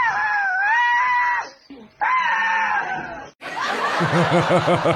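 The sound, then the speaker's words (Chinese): An eight-month-old tiger cub in Russia gives two long, high-pitched, wavering calls that sound like a shrill bleat or scream, followed by a rougher burst of quick, repeated pulsing cries. “而这只拥有魔性叫声的小老虎是这样叫的。”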